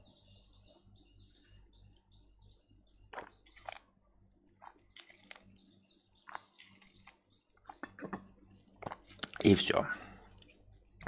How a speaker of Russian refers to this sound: Попил водички, как говорится.